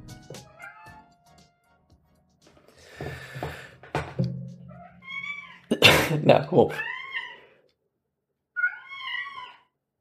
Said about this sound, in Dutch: pauze houden omdat mijn kat aan het miauwen is.